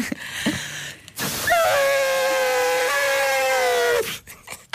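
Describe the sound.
A woman imitates an elephant trumpeting, using her hand as a trunk and blowing inward with her mouth closed: one loud, sustained, brassy blare lasting about two and a half seconds, rising sharply at the start and held steady before cutting off.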